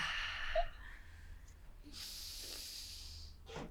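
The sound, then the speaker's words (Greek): Deep breaths drawn in and let out during a breathing exercise while moving the arms up and down, a long airy inhale then a second rush of breath, quiet, with faint breathy noises around them and no talking. “Χαλάρωσε και θέλω αρχικά να κάνεις τα χέρια πάνω κάτω και να πάρεις ανάσες.”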